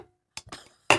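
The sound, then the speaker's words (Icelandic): A few sharp metallic clinks and scrapes from a tin can being handled, quiet at first, ending in one loud bright clank. “Þú bara láta hlustendur heyra við erum hérna með dásinu.”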